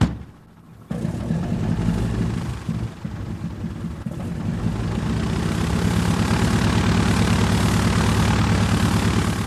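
A Junkers Ju 52 propeller plane flies, droning steadily, its deep, throbbing engine hum kicking in after a brief quiet moment and holding loud and constant with a buzzing, pulsing low rumble.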